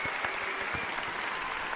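A single person, alone, claps steadily and briskly for Jérôme Flynn, a continuous run of sharp, even hand claps lasting under two seconds with no voices.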